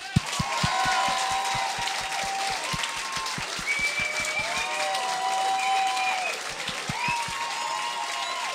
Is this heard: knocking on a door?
no